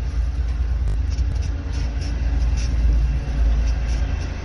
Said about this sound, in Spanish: Hola, pasó el tren, ¿qué tal? ¿Se escuchó? ¿Tenemos que bailar cuando pasa el tren también?